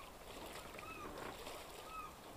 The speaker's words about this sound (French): Est-ce que tu entends le son des vagues qui m'entourent